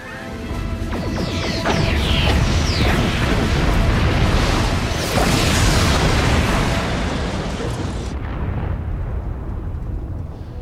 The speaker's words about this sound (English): Yeah, nice explosion there. Just pretty much destroyed them.